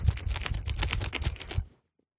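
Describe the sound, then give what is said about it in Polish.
A hand fan clacks rapidly as a person fans herself in hot weather, a dense run of crisp, overlapping wooden clicks and rattles lasting under two seconds, then cutting off into silence. No one speaks. “jeżeli usłyszycie dziwne odgłosy, to to jest mój wachlarz. Klekot, klekot, klekot, klekot.”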